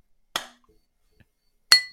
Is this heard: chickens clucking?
no